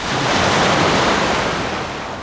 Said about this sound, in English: Big waves finally some waves on Koh Samui. Radical.